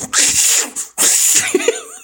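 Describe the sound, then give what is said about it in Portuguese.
A man performing on stage in front of an audience mimics a screaming cat with two loud, shrill, raspy screeches in quick succession, followed by a few softer wavering squeaks, harsh. “imitando um gato gritando.”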